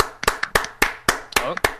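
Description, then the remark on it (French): Applause at the opening of the F1 show SAV de la F1, in a steady rhythm: about seven sharp, crisp claps at an even pace, with voices murmuring underneath between the beats. “Et déjà applaudissements parce qu'on commence avec seulement deux minutes de retard.”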